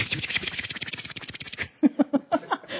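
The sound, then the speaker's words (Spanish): A voice imitates spraying water with a rapid, hissy string of breathy pulses lasting over a second, then a few short voiced bursts, moderately loud. “Del agua, ese es el, el sonido que estoy haciendo”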